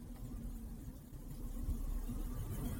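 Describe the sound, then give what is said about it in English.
Car air conditioning being turned on inside a hot car: a steady low engine rumble under a broad, airy rush of fan noise that swells slightly louder partway through. No one speaks. “I'm in the, my car, so sorry I'm going to turn this um, air on for a second.”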